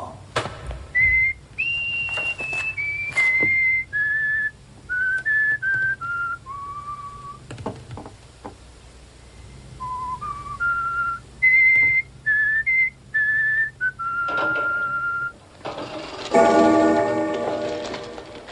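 A soldier whistles a slow, clear melody as he enters a palace, with held notes stepping up and down and short pauses between phrases. Soft ticking sits faintly underneath, and a brief, brighter ringing sound comes at the end.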